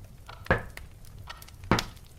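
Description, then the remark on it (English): Two sharp, solid knocks on a house door on Halloween in a small town, over a second apart, with a few fainter taps scattered between them. The hits are loud and woody against a quiet background, with no voices. “Another series of knocks focused my attention on the door.”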